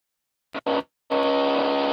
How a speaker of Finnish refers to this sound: Kuuluuko täältä muuten taas tätä narinaa täältä taustalta? Vähän, joo. Okei, okay, joo. Valitettavasti yläkerras porataan edelleen.